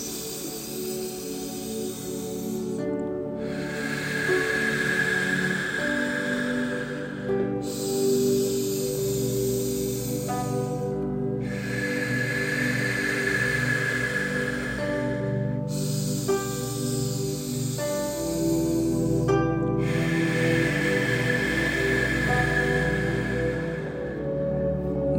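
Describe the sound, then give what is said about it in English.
Slow, heavy, deliberately deepened breathing of a person walking: long airy inhales and exhales in a steady rhythm with brief pauses between, over a soft sustained musical drone. “With the breath now, I just want to start drawing it in a little bit deeper, so a bit more exaggerated, which may sound like this as you walk.”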